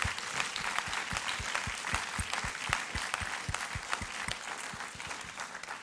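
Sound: loud audience applause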